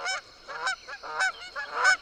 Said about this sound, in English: As my eyes continued to adjust to the scene, I gradually became aware that these were not rocks, but geese.